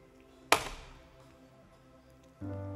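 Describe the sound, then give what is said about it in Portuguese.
A single tap on a full metal can, giving a short, dull thunk that dies away quickly with little ringing, followed by a quieter stretch and faint background noise. “A lata cheia, ela tem um som conciso.”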